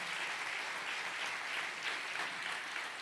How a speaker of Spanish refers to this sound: Si le va a dar el aplauso, si se lo vas a dar.